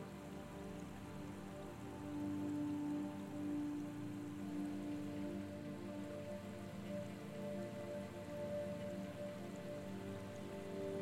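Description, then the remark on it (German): Steady rain falls continuously, a dense wash of drops pattering on a surface at an even, moderate volume, with no voices and no pauses throughout. “Lasse mal dieses frische Wasser genau dahin fließen.”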